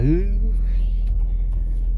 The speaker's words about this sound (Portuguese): Olha, tá dando pra ouvir? Tá, tá dando pra ouvir essa lata batendo? Nossa, esse carro tá cada dia mais.